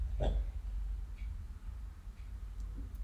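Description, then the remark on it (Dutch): A small dog snoring: one short snorting breath near the start, then soft, quiet breathing over a low background rumble with a few faint clicks. No one speaks. “Zoals mijn hondje die je net misschien wel hoorde snurken.”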